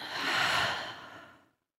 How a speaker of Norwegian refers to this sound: Ja. vi lukker øynene, mm. så trekke eh, pusten dypt inn gjennom nesen ut gjennom munnen.